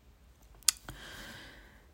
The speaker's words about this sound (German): Ich lösche das hier raus, damit ich nicht durcheinander komme. Ich hoffe halt, man hört das Tippen jetzt nicht so arg auf der Memo.